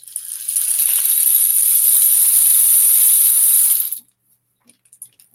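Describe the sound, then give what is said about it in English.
A homemade bead-filled rain stick, used for sound healing, tilted once, giving a steady, bright cascade of beads for about three and a half seconds before it cuts off, followed by a few faint stray clicks. “This is a, um, a rain stick that I made.”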